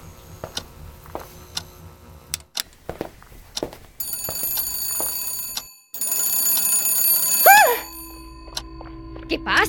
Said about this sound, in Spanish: El teléfono está sonando otra vez, con furia. ¿No lo has oído? Esta vez hay alguien ahí.